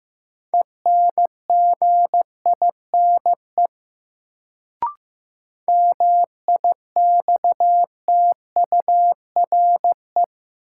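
Morse code sent at about 15 words per minute in a new word drill of sentences from the top 1500 words: a steady mid-pitched beep keyed into quick dots and dashes, two runs of characters split by a short pause with a single click. No voices.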